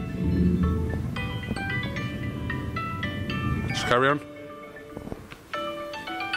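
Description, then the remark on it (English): A mobile phone chime rings out in a bright, repeating melodic pattern of clear tones, fairly loud, while a man keeps talking over it and briefly says a few words. “I thought that was your phone. It's my phone.”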